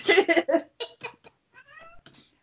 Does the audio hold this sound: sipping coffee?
no